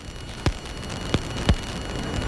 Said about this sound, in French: Mais du coup, là je pousse à fond, mais du coup je peux ajouter un peu de souffle, un petit peu de vinyle. Et avec de la guitare, ça donne quoi Et quelques petits crépitements aussi.